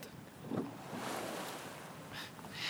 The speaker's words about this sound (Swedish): Det viktiga är att vi får sitta där i ekan och prata med varandra i lugn och ro höra vattnet klucka mot det gamla skrovet och iaktta de gapiga måsarnas skränande flykt över vattnet.